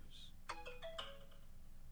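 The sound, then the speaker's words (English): A phone ringtone sounds a short electronic chime melody: two quick bursts of bright ringing notes about half a second apart, fairly faint, with no voices. “Forgive my phone.”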